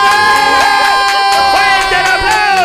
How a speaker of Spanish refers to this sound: aplauso!